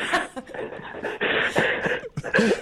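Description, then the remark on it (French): Heavy, rapid panting breaths from a caller come through a thin, band-limited phone line, loud, in a steady run of noisy gasps with brief dips between them. “On t'entend juste halter comme un chien.”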